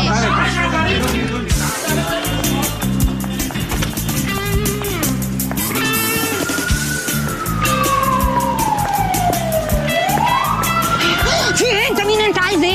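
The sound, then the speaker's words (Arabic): A police car siren wails up and down, rising and falling in long sweeps, loud over a busy, noisy street scene with voices talking in the background. “بوليس”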